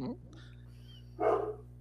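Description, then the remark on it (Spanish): A single short, sharp dog bark rings out near the end over a steady low electrical hum, with a brief voice fragment at the very start. “el honorable Consejo de Ancianos y su perro.”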